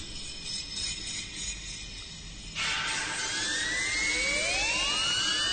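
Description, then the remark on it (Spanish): Electronic music plays with a steady, hissing high drone that abruptly swells halfway into a louder, denser wash, where whining tones glide upward like sirens. No voices are heard. “Es importante señalar que estos planos, así como los planos sonoros que estamos escuchando en este momento, servían exclusivamente como una referencia visual y estructural de la obra para su ejecución.”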